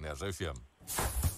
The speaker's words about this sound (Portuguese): O meu palpite é um daqueles chapéus de chuva automáticos a abrir. Um chapéu de chuva? É isso? É.